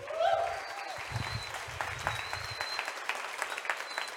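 An audience claps together in sustained applause, a dense crackle of many hands that holds steady for a few seconds, with a faint whistle or cheer near the start.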